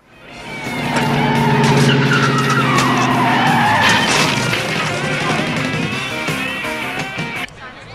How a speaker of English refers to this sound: recklessly pulls up in his sports car, smashing into the crates of fruit with little care in the world.